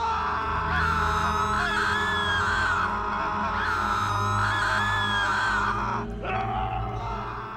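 Many voices scream and wail together in a loud, continuous, overlapping din that barely lets up from start to finish, with a brief dip near the end, heard as an old, battered trunk in the corner of a room is opened.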